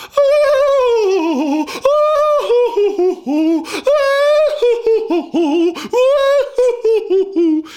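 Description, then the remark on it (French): Loud operatic female voices sing the Valkyries' battle cry, the rallying call of warrior maidens: whooping calls that leap up and slide down with strong vibrato, repeated several times in quick succession. “Eh bien ça, ce sont les chants de ces guerrières, de ces vierges guerrières, et c'est leur signe, si vous voulez, de, de ralliement quand ce sont les Valkyries.”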